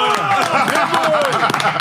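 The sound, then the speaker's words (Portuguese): A few people in a studio clap quickly and unevenly for a couple of seconds to welcome former Flamengo footballer Diego Rivas, with loud excited voices and cheering calls overlapping the applause throughout. “Palmas para Diego Rivas com a gente no Charla Podcast.”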